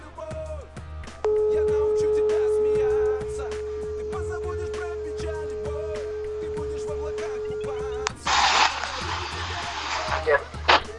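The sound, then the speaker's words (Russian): A steady telephone ringback tone from an outgoing phone call hums for several seconds, louder at first and then softer, over faint background voices, before it cuts off into a burst of hissy line noise. “Звоню.”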